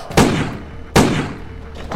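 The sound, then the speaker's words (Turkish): Two sharp, loud gunshots crack out less than a second apart, each trailing off in a brief echoing decay, with no one speaking; they are fired at a man in a small moonlit square at night. “Ardı ardına iki kez patladı silahım.”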